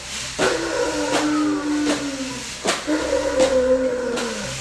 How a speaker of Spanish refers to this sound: De pronto se desató una tormenta sobre el lago.